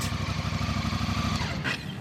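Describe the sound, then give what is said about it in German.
A motorcycle arrives at a seaside promenade in Izmir, Turkey, on a cold winter morning. Its engine rumbles steadily, its low throbbing pulse holding an even loudness throughout, with no voices. “kommt mit seinem Motorrad angebraust.”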